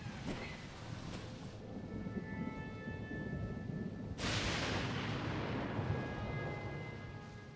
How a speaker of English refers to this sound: ah, rain. It never looks so good.